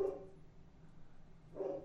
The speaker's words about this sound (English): Your dog's barking.